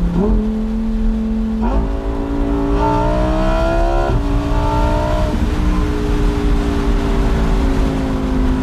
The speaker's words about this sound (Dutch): Ja, eigenlijk willen jullie gewoon nog even die V10 horen. Zal ik hem weer even in de sport zetten?